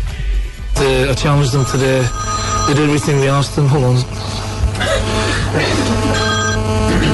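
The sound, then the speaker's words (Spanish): A mobile phone rings during a press conference with a bright, warbling electronic melody that repeats twice in quick phrases, then stops while a murmur of journalists' voices continues. “Ah, en plena rueda de prensa le sonó y contestó el teléfono.”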